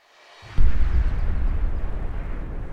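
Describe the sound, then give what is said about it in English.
A loud, deep explosion boom hits suddenly and rolls on into a heavy, sustained rumble that fills the rest of the moment, with no voices present; one of three booms heard on the last morning of a camp. “First, I heard three booms, I wrote in my journal.”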